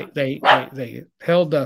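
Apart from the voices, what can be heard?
dog barking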